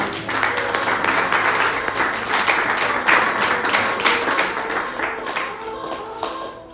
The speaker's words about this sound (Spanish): ¿Alguien puede aplaudir el Espíritu de Dios? En esta hora.